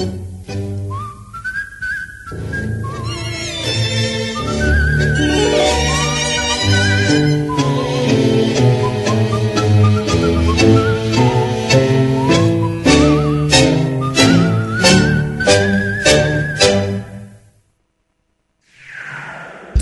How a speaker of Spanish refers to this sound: y un reo meditabundo va silbando esta canción.